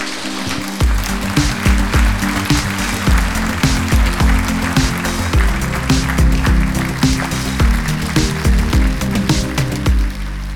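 A live audience breaks into steady, enthusiastic applause to welcome a guest who hand-spins wool, holding for about ten seconds, dense, with a low tonal hum running beneath the clapping.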